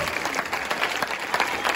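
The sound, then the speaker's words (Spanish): An audience gives a loud round of applause to God, clapping steadily in a dense, even wash of many hands at moderate loudness, continuous for the whole stretch with no voices standing out. “Démosle un fuerte aplauso a Dios.”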